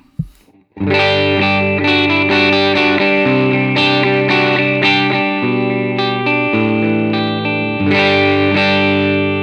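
An electric guitar plays sustained, chordal phrases through a middle pickup position, with a bright, slightly distorted, chorus-tinged tone ringing steadily for several seconds without any talking.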